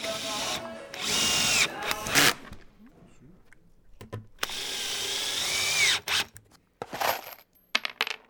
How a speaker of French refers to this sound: Près de toi, au deuxième sous-sol, une jeune femme en débardeur et caterpillar scie du métal, un casque anti-bruit sur les oreilles, des gerbes d'étincelles dans le dos.